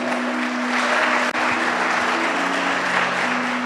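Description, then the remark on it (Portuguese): An audience at a Portuguese-language sermon applauds Jesus steadily, a dense wash of clapping that holds at an even, loud level throughout, with a faint sustained tone underneath and a single sharp break partway through. “e aquilo que um dia era morte, hoje é vida, aplauda ele, ele merece agora é vida.”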